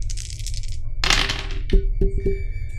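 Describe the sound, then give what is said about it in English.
Dice rattle briefly, then a few sharp clacks land in quick succession, each with a short ringing tone, over a low steady background hum. “I was like, come on, think of something to give yourself, like a bad dice. Here we go.”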